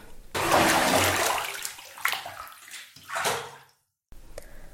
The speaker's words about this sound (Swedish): och han tar ett dopp i en av bassängerna.